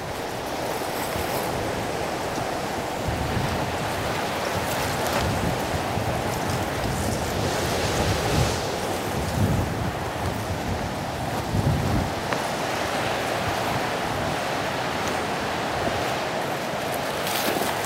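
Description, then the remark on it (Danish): Strong outdoor wind roars steadily and loudly, with rumbling gusts buffeting the microphone now and then. No one speaks. “det, det blæser rimelig meget i dag.”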